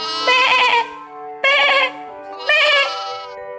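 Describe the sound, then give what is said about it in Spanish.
A sheep bleats three times in a row, loud, wavering, nasal baas with short pauses between them; the middle bleat is shorter than the other two. No one speaks. “Y sobre todo, no cuentes ovejitas. Una ovejita, dos ovejitas,”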